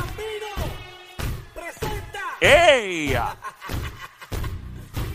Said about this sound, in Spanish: Vámonos con la canción más conocida de este chico bello hermoso, que es la fuerte, la agresiva.